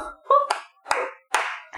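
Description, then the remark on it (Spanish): Hands clapping in a slow, uneven rhythm, about four sharp claps roughly a beat apart, moderately loud, with some brief vocal sounds mixed in between. “Aplaudan, che.”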